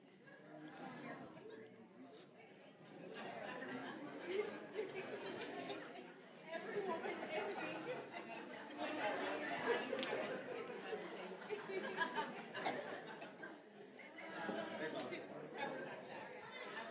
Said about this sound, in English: All right, all right, come back to me. It's good. All right. I, I, I listen. you all enjoyed that. You were like having a full-on discussion about your superpowers.